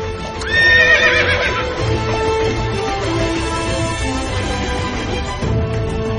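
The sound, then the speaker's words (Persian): Horses neigh loudly over a dense, continuous rumble of many hooves galloping as a man on horseback rides with an army of thousands of other horsemen toward a city, a shrill whinny rising near the start, with no voices present. “مردی سوار بر اسب به همراه هزاران سوار دیگر با ارتشش داره به سمت شهر شما”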